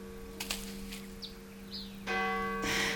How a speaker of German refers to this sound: Die Kirchenglocken, die machen mich wahnsinnig.